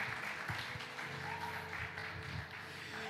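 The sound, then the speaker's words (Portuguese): An audience applauds the Lord steadily for a few seconds, a dense, continuous patter of many hands clapping at even loudness, with a faint low sustained hum underneath and no one speaking. “Você pode aplaudir ao Senhor e vibrar por isso.”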